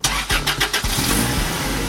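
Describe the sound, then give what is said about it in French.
The engine of a panel van, a small collective minibus, cranks with a few quick rhythmic turns, then catches and settles into a steady rumbling idle. “Il y a aussi un autre moyen pour faire circuler l'Amapiano, c'est les panel vans. C'est des petits bus collectifs qui se servent de la musique pour attirer les clients.”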